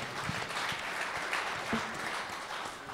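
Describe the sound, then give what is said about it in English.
A crowd applauds steadily, a dense wash of many hands clapping at once with sharp individual claps popping through, sustained at an even, fairly loud level. “I think that deserves a, a round of applause right there.”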